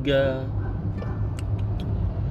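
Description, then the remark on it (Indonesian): Police escort vehicles, one with plate number A17, pass through a traffic jam, with a steady low engine rumble throughout, a brief tonal blare at the start, and a few sharp clicks near the end. “lagi macet patwa lewat ya plat nomornya A17 oke okay.”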